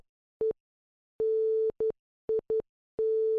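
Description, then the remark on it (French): Morse code beeps said to spell 'Mikos the Night': a clear, steady electronic tone keyed on and off in six pulses, short, long, short, short, short, long, with no voices around them. “Ça, ça voulait dire Mikos the Night en morse.”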